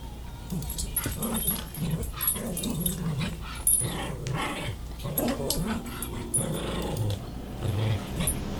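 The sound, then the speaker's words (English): A pet dog named Charlie growls and snarls continuously while attacking a person during a live stream, with rough low rumbles broken by sharper yips and whimpering sounds throughout, fairly loud and steady with no one speaking. “Our live streams are always so smooth and free of flaws and weird animals doing things.”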